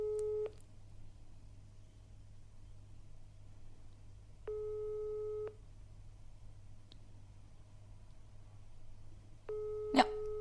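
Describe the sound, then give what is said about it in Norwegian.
The ringback tone of a prank phone call repeats through an earpiece, a steady one-second buzz returning about every five seconds, unanswered, over a low constant hum with no voices. “Så vi ender opp med at det er ingen som tar telefonen.”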